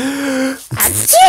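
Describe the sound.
A voice mimics a sneeze: a brief drawn-out vocal build-up, then a sharp, breathy burst of air that rises loudly and trails off into a voiced tail.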